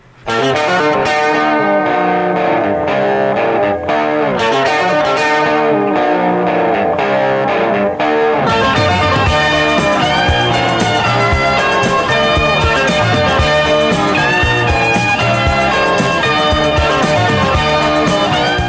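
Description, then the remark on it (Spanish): An electric rock guitar song plays throughout, loud and distorted with effects-laden tone, dense harmonic lines, and the full band thickening after the opening bars. No one talks. “Uy, Salvador, están escuchando ahí la guitarra de quien es considerado como el segundo mejor guitarrista de todos los tiempos”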